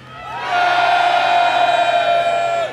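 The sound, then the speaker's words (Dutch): An audience from the events industry cheers loudly on request, a sustained roar of voices holding one bright tone for about two seconds before dropping off. “Kunnen we dat één keer doen met geluid? Want we komen uit de evenementenbranche.”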